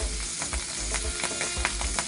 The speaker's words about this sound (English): Add a little bit of oil. It's going to pop this splatter because oil and water don't mix. Don't get excited.